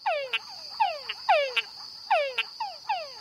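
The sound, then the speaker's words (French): A male túngara frog calls repeatedly, its vocal sac inflating rhythmically, each call a descending whine, some ending in short clicking chucks, roughly two per second over a steady high-pitched insect drone. “Lorsqu'un monsieur Tungara est en train de chanter, le gonflement rythmique de son sac vocal fait naître à la surface de l'eau des vaguelettes qui se propagent tout autour du chanteur en cercles concentriques”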